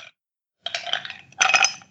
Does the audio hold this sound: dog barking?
no